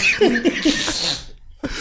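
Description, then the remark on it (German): Laughter breaks into a run of harsh coughs from someone who still has a lingering cough, several bursts in quick succession, followed by a short pause and another cough starting up. “Aber ah, ist so scheiße, wenn man immer noch ein bisschen Husten hat und dann der, der das Lachen das Husten triggert.”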